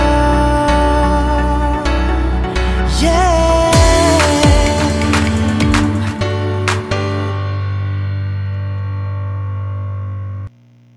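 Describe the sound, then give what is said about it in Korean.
A loud pop song from 2013 plays continuously during a broadcast, with a heavy steady bass line, layered bright synths and sharp percussive hits, before cutting off abruptly near the end. “그 전에 노래 한 곡 더 듣고 올게요.”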